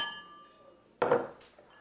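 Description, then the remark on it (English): Soft ringing glass tones fade out, then a sudden bright clatter of glasses knocking together, with no voices, as a man pours two glasses of whiskey late at night. The pouring isn't clearly distinct. “poured us each a whiskey.”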